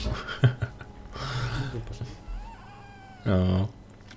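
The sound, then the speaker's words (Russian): A cat meows a couple of times, with a short rising cry followed by a louder, sustained meow near the end, amid some background voice and rustling. “Как моя кошка.”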